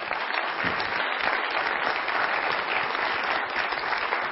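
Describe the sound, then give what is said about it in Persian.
Steady audience applause given to thank the education system, filling the whole stretch: a dense patter of many hands clapping at once, fairly loud and sustained without pause, with no voices standing out. “خب واقعا جا داره تشکر بکنیم از این سیستم فوق العاده تشویق بکنی سیستم آموزشیمون رو زحمت کشیدن”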